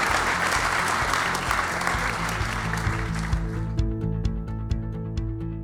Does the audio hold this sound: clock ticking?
no